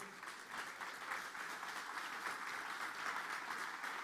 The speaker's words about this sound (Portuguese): Você pode aplaudir ao Senhor.